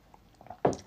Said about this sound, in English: Hang on, take a sip.